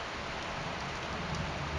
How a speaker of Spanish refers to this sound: el canto de la lluvia del invierno me parece distinto del canto de la lluvia del verano.